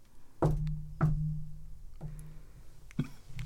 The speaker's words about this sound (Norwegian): Hva er jomfrunalsk banking på døren? Hun banker som en jomfru. Gjelder vakt. Det er en sånn usikker banking eh. Jeg vil at alle skal gjøre et forsøk på å banke som en jomfru.